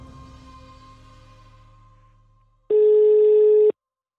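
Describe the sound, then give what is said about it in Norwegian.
A single steady beep of a telephone ringback tone on an outgoing call, about a second long, sounds loud and clear as a faint low rumble fades out just before it. “Så vi ringte ham opp.”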